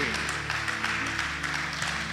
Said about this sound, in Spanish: Este es un aplauso para este tipo. Este hizo lo bueno. Dale un aplauso fuerte, no seas así.